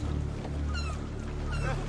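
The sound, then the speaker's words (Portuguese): Two short bursts of seagull cries ring out over a steady, low engine drone and the wash of open water, the calls fairly clear against the constant rumble. “Gaivotas! Gaivotas!”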